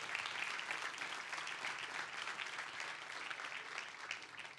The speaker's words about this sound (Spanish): Denle un fuerte aplauso si quiere a Dios.